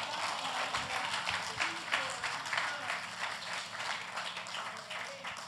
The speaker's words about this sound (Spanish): Fuerte el aplauso al que vive y reina.